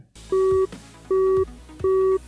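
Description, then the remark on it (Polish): A telephone busy tone after a call ends sounds three times in a steady rhythm, each loud, clear beep lasting about a third of a second and separated by short pauses, with faint low hum underneath. “Połączenie zakończone.”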